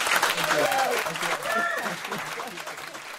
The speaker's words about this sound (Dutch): En dit was dan het concert vanuit Janine Kiefplaza. Tot de volgende keer. En eh, nog eenmaal groot applaus.